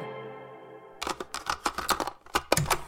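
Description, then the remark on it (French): A steady low hum gives way to a rapid, irregular burst of sharp, crisp camera shutter clicks, about a dozen, as a woman who has stepped out of a vehicle takes photos. No voices. “sa mère stoppe et sort du véhicule pour prendre des photos”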